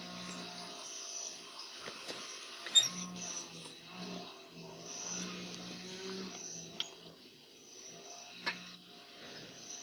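A power tool runs outside a building as someone works on something, a muffled, steady mechanical drone with a low hum, broken by a few brief clicks and knocks, faint, with no voices.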